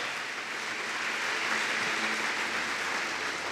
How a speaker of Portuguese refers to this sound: Cara, se você crê nisso, dê um aplauso ao Senhor, porque hoje há uma motivação no céu para te abençoar.